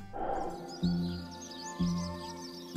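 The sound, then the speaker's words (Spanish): Birds chirp and twitter softly in the background of a popular music song that weaves in nature sounds, while a steady musical drone plays with low bass notes striking about once a second; no one speaks. “Es un conjunto de canciones, pero también algo más, porque en los temas se cuelan los sonidos de la naturaleza. Grillos, pájaros, insectos.”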